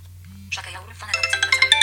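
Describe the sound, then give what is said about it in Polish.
A mobile phone, an Xperia, rings with an incoming call placed on the Orange network, its ringtone a bright, repeating melodic pattern of quick tonal notes, fairly loud, starting after a brief low hum. “Mamy Orange, dzwonimy na Xperianę OV.”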